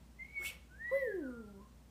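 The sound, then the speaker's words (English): A person whistles a short, wavering tune imitating a whistling sound effect, starting with a high steady note and then sliding down in pitch over about two seconds, fairly quiet, with no talking. “we have the whistling sound effect at this point, but because we don't have that sound machine, we will have to make it ourselves.”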